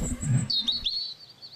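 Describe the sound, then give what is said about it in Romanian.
Small birds chirp and warble in a quick, high twittering burst, clear, with a low rumble underneath at first before the chirps carry on alone. “Îi cântă păsărelele.”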